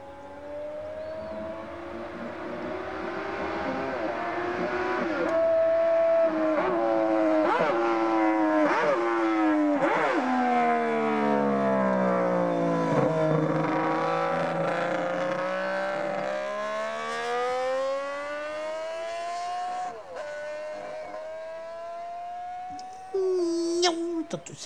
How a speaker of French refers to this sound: Et c'est le plus beau son de moto que je n'ai jamais écouté. Je l'ai écouté à Montlhéry, au Coupe Moto Légende. C'est la 250 Honda 6 cylindres avec laquelle McElwood a gagné le Tourist Trophée. Elle prend 21 600 tours.